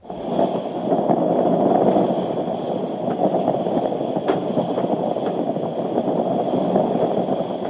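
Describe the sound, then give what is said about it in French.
Noises inside the mast of a racing sailboat sailed solo on the open ocean, far from any land: a steady, dense rushing roar that holds for several seconds, with faint scattered knocks and ticks running through it and no voices. “Dans le mât.”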